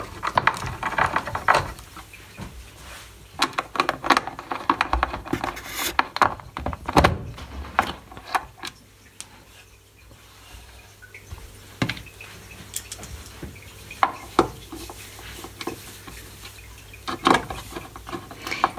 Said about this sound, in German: schraubt jetzt gerade die, ähm, diese, Metall, diese Metallunterkonstruktion der Tasten wieder an das Gehäuse an.